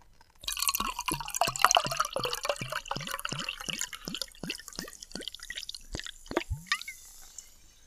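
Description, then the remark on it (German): Sparkling water, Bergquelle Klassik, is poured into a glass with a steady run of rhythmic glugs, and a bright fizzing crackle fills the background. The pour is moderately loud, with no voices. “Ah, das Sprudelwasser am Schluss so rauskommt, das ist auch geil.”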